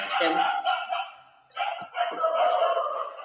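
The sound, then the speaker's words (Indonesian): Several dogs near a forest bark and yip in a loud, overlapping chorus that pauses briefly partway through, then resumes just as densely, with sharp high-pitched barks piling on top of one another. “ah ya kita di sini record di di dekat hutan hutan jadi banyak anjing babi”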